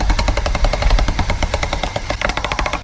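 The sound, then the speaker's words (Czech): A hand-cranked pasta machine rolls mixed colors of polymer clay into a flat sheet for decorating spoons, with a loud, fast, steady train of rattling mechanical clicks that continues for about three seconds with no voices. “Eh, můžeme smíchat různé barvy a udělat to takový dohový přechod a dáme to do strojku na polymerovou hmotu, ale je to v podstatě strojek na těstoviny”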